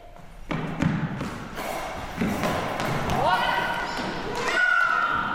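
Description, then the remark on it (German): A goalball penalty throw: the heavy ball thuds and bounces several times across a hard indoor floor, with a faint jingling ring trailing the impacts and murmuring voices in the background. “Abbas hat den Ball nicht in der eigenen Spielfeldzone aufkommen lassen, es gibt einen Strafwurf, vergleichbar mit dem Elfmeter”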